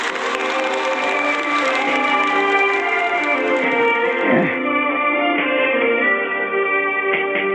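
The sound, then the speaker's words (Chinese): An audience at a singing competition claps steadily for about four seconds to welcome contestant number 221, an alto from a senior men's choir, while sustained instrumental music begins. The applause then drops away, leaving the music playing on its own. “来，掌声欢迎！”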